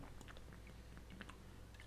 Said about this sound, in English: I had to take a sip there of the H2O.